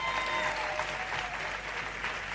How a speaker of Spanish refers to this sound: Ahora sí, dale un aplauso fuerte al Señor.